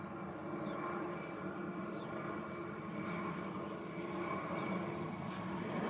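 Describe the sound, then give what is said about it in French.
A steady, loud engine drone of an arriving airplane fills the air overhead, holding a constant roar with a low rumble and tonal hum throughout, with no voices. “Les avions et les touristes aussi arrivent.”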